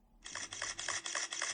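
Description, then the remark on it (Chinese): A phone camera shutter fires in a quick burst of five bright, crisp clicks, evenly spaced about a third of a second apart, with no voices, as several girls holding phones take photos from a distance. “看到几个女生拿着手机站在远处拍照，赶忙提醒。”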